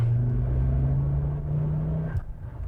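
The engine of a Ford Focus ST 2 with all-wheel drive and Stage 2 tuning drones steadily from inside the cabin while driving, a deep, loud rumble with a strong low hum that holds for about two seconds before dropping off as the revs change.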